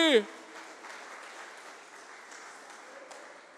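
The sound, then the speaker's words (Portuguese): A large crowd breaks into sustained, dense applause for the Lord that holds steady for several seconds, following a brief shout of a voice at the very start. “Vamos aplaudir o Senhor bem alto, gente!”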